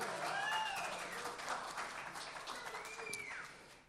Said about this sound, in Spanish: Aplausos, aplausos.